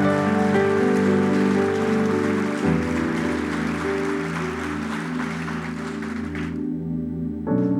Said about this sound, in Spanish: Un aplauso para Jesús.